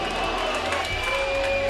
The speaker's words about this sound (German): Alle um Yoshida herum pfeifen und jubeln und fallen sich in die Arme